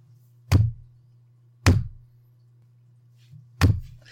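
Three firm knocks on a hard surface, unevenly spaced, each a sharp thud with a quick decay, sounding close and fairly loud over a faint steady low hum.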